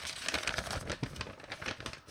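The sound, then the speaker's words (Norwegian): Continuous crinkling and rustling of paper as a paper note is unfolded to be read, with irregular crackles and a few sharper snaps, no voices. “Så der er papirlappen. Skal jeg lese den først, eller skal jeg se hva som er inni?”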